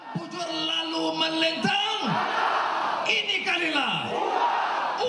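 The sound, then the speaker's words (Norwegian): A large crowd at an election rally in the town of Seramban cheers on opposition leader Anwar Ibrahim, shouting in unison, loud rallying chants rising and falling over a constant roar of many voices. “Her blir han heia fram på et valmøte tidligere denne veka.”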